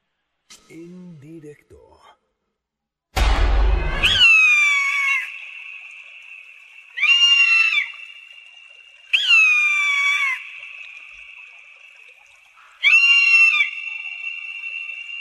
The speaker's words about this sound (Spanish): Eh, les platico, eh, estamos escuchando Águilas de cola blanca, porque se han reintroducido en la isla de Wright 240 años después de su último registro en Inglaterra.